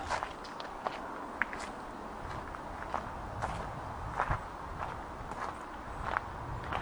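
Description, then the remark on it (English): Steady footsteps crunch along at a walking pace, walking back down towards the river, each step a soft gritty scuff, repeating roughly every half second over a constant low outdoor hiss. No one speaks. “And we begin to walk now back down towards the river.”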